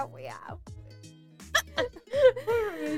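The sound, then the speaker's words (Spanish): A couple of short, abrupt hiccups pop out, separated by brief pauses and surrounded by soft vocal sounds and breathy laughter. “bueno, te dio hipo de verdad.”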